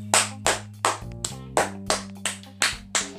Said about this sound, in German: Applaus, Applaus für den, der es macht.